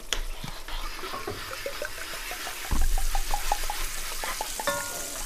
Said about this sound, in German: So, äh, gibst mir einmal das Wasser bitte. Ja. Hier. Ja, einmal reinkippen bitte. Ich rühre nochmal.